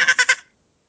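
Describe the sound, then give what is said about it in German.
A voice imitates dolphin squeaks: three quick, high-pitched chirping pulses in a rapid run, fairly loud, lasting under half a second before silence. “Ich kann, äh, ich kann Delfin sehr gut”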